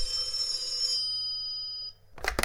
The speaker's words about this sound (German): Ist mal, ohne Scheiß, das grüne Telefon klingelt jetzt, oder was? Wer hat denn da die Nummer? Warum klingelt das denn jetzt? Diggi, geh ran.